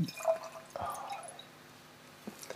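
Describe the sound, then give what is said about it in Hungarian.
Wine being poured into a glass for a toast, a short gurgling splash with a bright, ringing tone that rises and fades over a couple of seconds, with faint drips at the end. “Hát akkor töltsé magadnak.”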